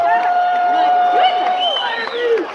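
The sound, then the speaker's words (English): A rowdy crowd cheers loudly and steadily, a dense mix of shouting voices with one long, high whistle held through the first half and a few whoops rising near the end. “we, this crowd's pretty well pumped. They're pretty uh, rowdy, Howard.”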